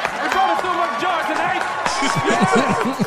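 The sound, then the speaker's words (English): An audience applauds and cheers, with many overlapping voices whooping and shouting over a steady wash of clapping that stays loud for the whole few seconds. “Let's get a big round of applause”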